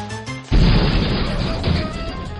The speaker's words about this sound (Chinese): 火车头一头撞进了鸡舍。